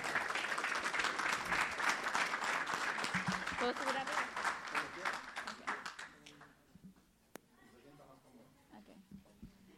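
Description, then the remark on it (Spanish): A church audience applauds as a woman comes forward to give her testimony: dense, steady clapping for about six seconds, then the applause thins into a few scattered claps and fades, with a single sharp tap near the end. “Antes de yo empezar, un aplauso y pase con confianza.”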